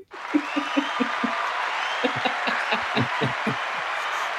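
applause

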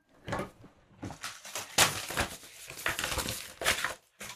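rustling papers

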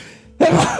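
sneeze

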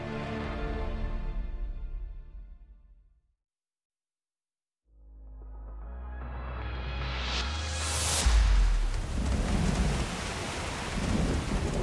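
heavy rain pouring down

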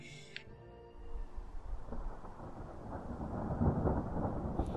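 thunderstorm with rolling thunder

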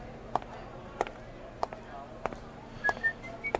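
man whistling

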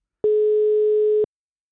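telephone ringing tone

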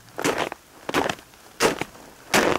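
footsteps crunching in snow

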